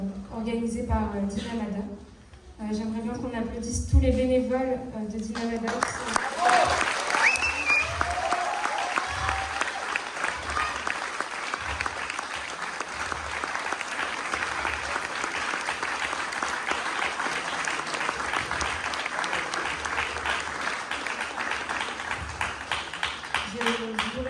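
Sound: audience applause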